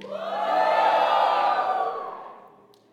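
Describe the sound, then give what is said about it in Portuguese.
An audience, asked who is happy, lets out a loud, sustained collective shout that swells over the first half second, holds strong for about two seconds, then fades away. “Agora, quem é feliz, dá um grito mais forte.”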